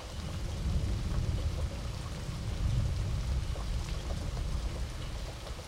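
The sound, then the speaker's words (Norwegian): Steady, continuous rain hisses throughout, fairly loud, in the background of a song recording, with a deep low rumble underneath like thunder. No voices are heard. “Nydelig med det regnet i bakgrunnen.”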